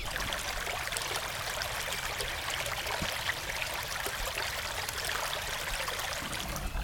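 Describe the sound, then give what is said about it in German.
A tiny offshoot of a small brook, with a miniature waterfall among sunlit trees, babbles steadily with no voices present, a soft continuous trickle and splash of water that stays even for the whole stretch. “Ja, jedenfalls ein Ausläufer von einem Ausläufer von einem Bächlein ist hier. Vielleicht hört ihr es ein bisschen plätschern.”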